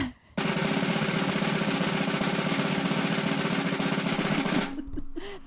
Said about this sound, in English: drum roll.